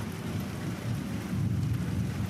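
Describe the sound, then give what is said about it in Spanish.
A thunderstorm: a deep, continuous rumble of thunder rolls beneath steady rain hiss, loud and sustained throughout with no voices. “Por eso se enfurecen y descargan sus rayos incandescentes y el agua, como la última esperanza de crear el puente entre el cielo y la tierra.”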